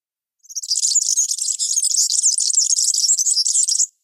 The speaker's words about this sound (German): Wir hören uns nochmal den Gelitz zum Vergleich an.